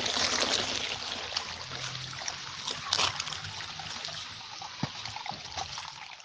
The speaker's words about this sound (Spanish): Les quiero compartir este hermoso sonido de un riachuelo